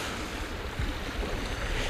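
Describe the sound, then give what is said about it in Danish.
Steady wash of water on the beach shoreline at Vindekilde on Røsnæs near Kalundborg, a broad hiss of small waves lapping without pause, with a light rumble of wind beneath and no voices. “Ja, nu, nu sidder vi på strandbredden øh, ned for et sted, der hedder Vindekilde øh, på Røsnes ved Kalmborg.”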